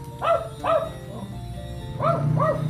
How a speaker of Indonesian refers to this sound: si anjing teh berisik ya ini adalah contoh anjing yang real real masih anjing ini bentar ya